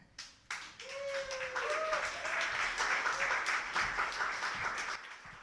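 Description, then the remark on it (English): An audience applauds a poet at a judged poetry performance, breaking into steady applause after a short pause, a dense wash of clapping with a few cheers and whoops rising above it, sustained at a fairly loud level throughout. “All right, keep applauding for the poet while the judges tell us what they think”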